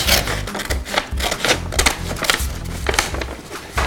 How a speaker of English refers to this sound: I'll be taking my recyclable paper bag and cutting it open. I'm just cutting along the edge